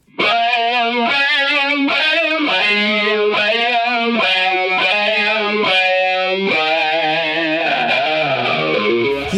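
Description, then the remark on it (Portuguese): A talkbox guitar effect shapes sustained, distorted guitar notes into vowel-like, speech-shaped sounds, phrased in rhythmic bursts with a final note that wavers and bends downward. Loud, with no one speaking. “E o talkbox é um efeito de guitarra que eu já falei inclusive aqui no canal”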